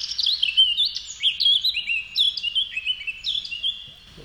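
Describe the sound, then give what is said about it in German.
High, fluting bird song runs continuously, a bright stream of varied whistled phrases and quick chirps, clear with no voices over it. “Also Also diese hohen flötenden Töne, das was man da irgendwie mal wieder hört.”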